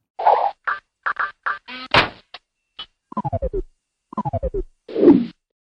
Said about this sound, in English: Those sounds were made by Clippy, the paperclip assistant who used to be in Microsoft Office.